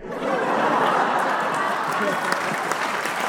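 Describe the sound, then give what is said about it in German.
An applause sound effect: a burst of steady crowd applause, dense overlapping claps at an even loudness throughout, with a faint murmur of voices mixed into the clapping. “Ich weiß jetzt, warum ich vorhin eigentlich nochmal Applaus drauf machen wollte, weil da, wo es Applaus gibt hier, ist auch ein Lacher dabei.”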